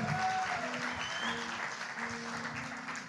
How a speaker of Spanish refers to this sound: Aleluya ofrenda de palmas al Señor.